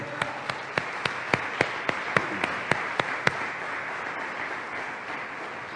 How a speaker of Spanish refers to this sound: Aleluya, démosle palmas.